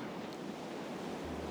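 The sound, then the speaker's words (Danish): A steady, broad hiss of ocean surf washes over a sandy beach on a sunny day, even in loudness, with a faint low rumble joining near the end. No one speaks. “Du kan høre havet.”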